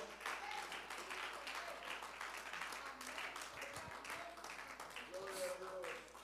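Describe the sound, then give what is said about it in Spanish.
An audience applauds God's presence in a steady, dense roar of clapping that holds evenly throughout, with scattered voices calling out over it. “Puede alabarlo con sus labios y aplaudir su presencia.”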